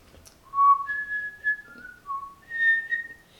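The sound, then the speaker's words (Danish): A person whistles a short, wavering tune, several sustained notes sliding up and down over about three seconds, with no talking. “Jeg skal fløjte.”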